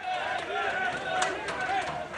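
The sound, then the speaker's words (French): A frenzied crowd in al-Zahoura park shouts and clamors in a dense, continuous roar of voices as it beats the fallen metal head of a 20-metre Saddam Hussein statue lying in a fountain, with a few sharp blows ringing out over the din. “Au pied de l'ancien président, la foule se déchaîne sur cette tête, désormais masse métallique, qui gît au milieu d'une fontaine.”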